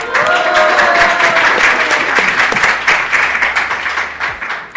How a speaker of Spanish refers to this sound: Aplauso para ustedes.